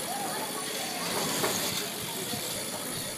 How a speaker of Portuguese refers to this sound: Esse é o som do movimento no centro comercial de Afuá, no Pará, a única cidade do país em que automóveis e motos são proibidos por lei